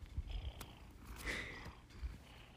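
A cat purrs loudly and steadily, with a brief higher-pitched vocal rumble in the middle and a few soft thumps, no talking.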